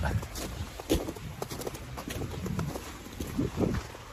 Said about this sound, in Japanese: 6時30分、豊平川河川敷に着きました。月曜日の朝ですけど、静かですね。なんとなくね。雪の音聞こえるでしょうか。